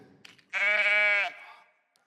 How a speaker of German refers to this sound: Ein Schaf. Mäh. Habt ihr mal gehört, wie ein Schaf tönt?